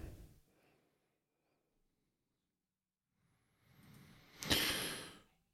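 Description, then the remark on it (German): Heavy breathing: a short breath at the start, a pause, then a long, loud, rushing exhale that swells and slowly fades, like a deep sigh into the microphone. “Schweres Atmen hier, ja.”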